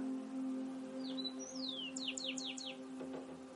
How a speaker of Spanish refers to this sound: Gracias, Porotito, por tu canto se une el pajarito también a nuestra oración.